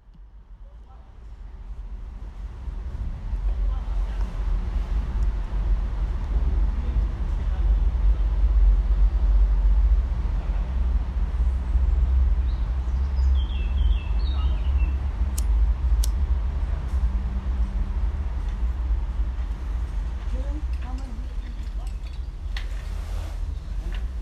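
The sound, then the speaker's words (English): Outdoor ambience of the Harald Renner Platz in front of the Kapu in Linz: a steady low rumble of traffic fills the background, with faint indistinct voices and a few brief high-pitched clicks and chirps drifting through. “There are few places in Linz where this is more noticeable than on the Renner Platz in front of the Kapu.”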